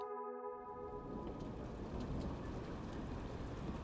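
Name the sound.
rain falling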